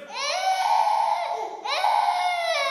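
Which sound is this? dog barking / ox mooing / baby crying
baby crying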